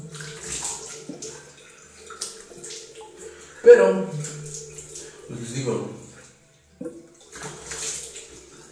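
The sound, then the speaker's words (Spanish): Someone washes their face under steady running water, a continuous hiss and splash that lasts the whole clip while a man talks over it in brief phrases. “Es como que me estoy lavando la cara, por eso me quedo callado un momento.”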